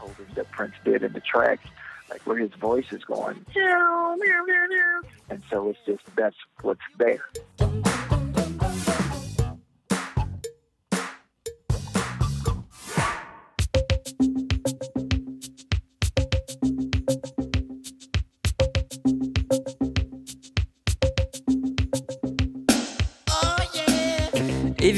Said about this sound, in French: vous pouvez entendre les harmonies vocales de … telles qu'elles ont été enregistrées à l'origine